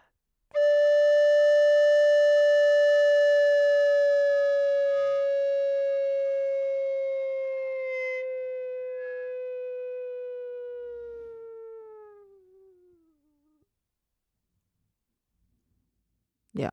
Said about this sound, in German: Und der hat am Ende von dieser elfteiligen Komposition eine Anweisung geschrieben, es soll ein Multifonici Phantasma geben, also ein fantastisches multifones äh, Glissando ja. sozusagen. Und das würde dann zum Beispiel so klingen.